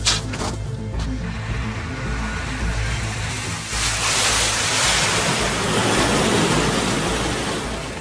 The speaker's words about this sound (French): le bruit de glissement un peu fort qu'on a entendu là, c'est, ce sont les skis. Parce que vous étiez, vous étiez à ski, évidemment, vous y étiez euh, en toute saison, y compris en hiver dans cette vallée